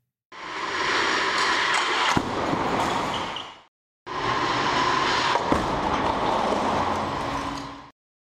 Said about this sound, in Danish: Du hører nu lyden fra en officiel crash-test af en bil fra Marks CV.